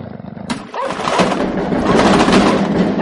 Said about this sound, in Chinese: 门内传来剧烈的撞击声，我吓得转头飞奔而去。